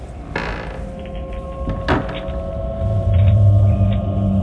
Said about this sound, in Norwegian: Inn i den store hovedbygninga knirker det og knaker og popper og smeller i treverket.